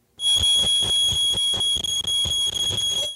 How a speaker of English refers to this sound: the home smoke alarm sounded off within just 13 seconds, which Toronto Fire Services says highlights just how vitally important these devices are.